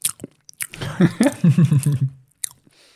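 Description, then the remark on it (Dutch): Chewing of a bite of cheese: a few soft, moist smacks and clicks at the start and end, with a drawn-out voiced murmur of enjoyment in between. “gaan we een hapje nemen.”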